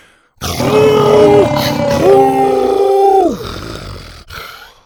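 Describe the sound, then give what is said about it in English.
A loud, guttural dinosaur roar with a rumbling growl holds for about three seconds, then slides downward in pitch and fades, with no talking, as the dinosaur Buck roars at warriors surrounding him. “Buck roared some more, his throat rumbling with his guttural cry.”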